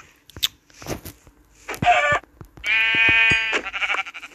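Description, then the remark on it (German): Several sheep in a video game bleat in close succession as the player kills them, the calls loud, harmonic and nasal, with short clicks and thumps between them and a long wavering bleat near the end. No one speaks. “Ich hab mies Hunger tötet mal ein paar Schafe, sorry. Sorry, Schafe, aber.”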